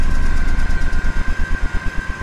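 A loud alcohol-fuelled rocket engine running on test roars and begins chugging in rapid, regular pulses, a steady high whine running through the deep, rumbling thrust; a valve keeps vibrating as the alcohol fuel runs low.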